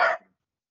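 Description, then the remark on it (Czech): A single short, sharp bark from a pet dog in a backyard on a summer day, somewhat muffled and not very loud, cutting off quickly into silence with no talking around it. “No, něco teďka tady zaštěkal, nevím, jestli to tam je slyšet, ale je dneska na zabití.”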